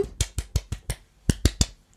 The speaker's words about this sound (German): Also ein äh, kleines Klatschen.